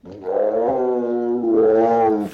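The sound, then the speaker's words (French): Tiny newborn Bengal tiger cubs of about 700 grams cry in a loud, sustained whining wail, rising and falling in pitch across two drawn-out cries with no pause between them. “étonnant ces, ces, cris de petits tigres.”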